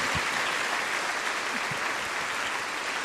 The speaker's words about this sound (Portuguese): Aplauda o Senhor bem forte em nome de Jesus.